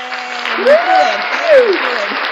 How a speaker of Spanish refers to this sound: Entonces, un aplauso al amigazo. ¡Bravo! Sí.